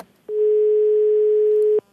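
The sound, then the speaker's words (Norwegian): A single steady telephone ringing tone sounds for about a second and a half, a clear, even mid-pitched beep heard on its own over a faint line hiss, as a reporter calls a person selling illegal concert tickets. “NRK prøver å ringe personen som selger ulovlige …-billetter.”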